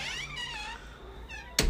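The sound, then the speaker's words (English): A cat wanting to be let in meows twice in quick succession, a drawn-out plaintive cry followed by a shorter one, then a sudden sharp noise cuts in at the end. “I'm just going to go let my cat in real quick.”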